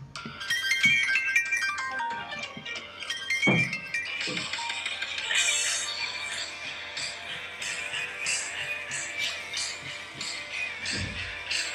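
A song's opening plays with a bright, busy piano melody of quick ringing notes, joined by a few low thumps and percussive hits, steady and fairly loud with no one talking.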